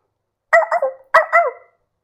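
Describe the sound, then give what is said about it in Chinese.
A dog barks in two short bursts, each splitting into a couple of quick, mid-pitched yaps, fairly loud and alone against silence, with no talking. “狗爸爸跑得快，驮着宝贝儿像比赛。”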